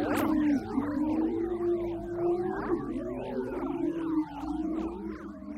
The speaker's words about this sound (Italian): La missione Cluster dell'Ente Spaziale Europea nel 2019 ha trasformato in suono le onde magnetiche che si producono quando il vento solare incontra il campo magnetico terrestre.